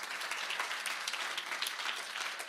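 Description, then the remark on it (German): Steady applause from an audience for the speaker's parents, many hands clapping in a dense, continuous crackle that holds at an even level throughout, with no voices standing out. “Die kriegen auch mal einen Applaus.”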